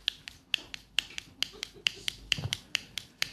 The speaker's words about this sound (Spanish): Hay efectos muy pequeños. Rodamos un rotulador sobre un anillo y tenemos el tic-tac de un reloj.